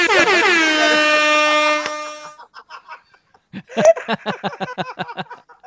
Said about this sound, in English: But like, uh, I want uh, the hip hop horn. Oh, you found the golden Triforce. Oh God. There's got to be a way to make custom metal detecting sounds.